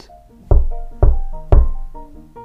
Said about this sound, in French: je l'entends. Elle toque à la porte.